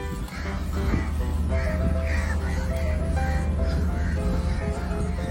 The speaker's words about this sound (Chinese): 听见鸟叫了吗？那不是什么鸟，那乌鸦。对，乌鸦也是鸟。